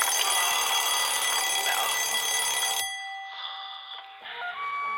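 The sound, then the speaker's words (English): A loud alarm clock bell rattles continuously for nearly three seconds, then stops abruptly, leaving a few brief, thinner ringing tones at the end. “Don't wanna hear the bell, the alarm clock's my nemesis.”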